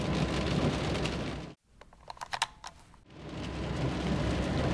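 Heavy rain roars steadily in a thunderstorm, heard from a car driving through it, breaks off for about a second and a half to quieter scattered drips and patters, then the loud downpour returns. No one speaks.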